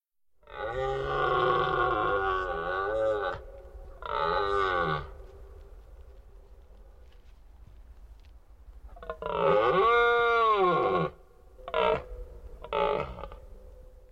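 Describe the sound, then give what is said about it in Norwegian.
A recording of a red deer stag's call, used as a hunting lure, in a series of loud, drawn-out moaning bellows: two long calls, a pause, then a longer wavering call followed by shorter ones, with no talking. “Nå skal vi også huske at ingen bukkel har helt lik lyd.”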